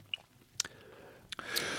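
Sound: lip smacking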